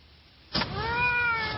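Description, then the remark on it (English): After a brief quiet moment, Pinky, a male domestic shorthair cat up for adoption at the Placer County Animal Shelter, lets out one long, drawn-out meow, clear, holding a steady wavering tone until the end with no talking. “He's a male cat, domestic short hair.”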